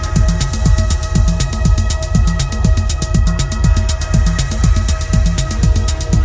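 A loud electronic techno track pounds along with a steady four-on-the-floor kick, crisp hi-hat ticks and a droning synth layer, played continuously without any voices.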